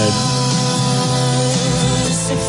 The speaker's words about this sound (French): Oh, mais non, mais, Quentin, non, mais c'est le son du journal de demain, ça. Julien, euh, c'est une fausse manip.